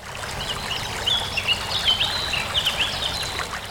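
Steady rushing of a fast-flowing river, a broad continuous wash of water with light trickling detail, while a few small birds chirp and twitter faintly above it.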